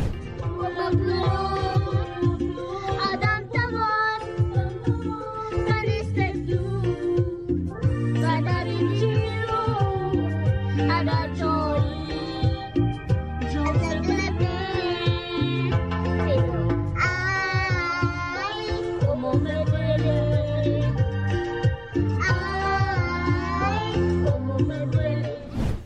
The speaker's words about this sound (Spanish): se hizo viral una niña británica que canta con todo la canción de … de …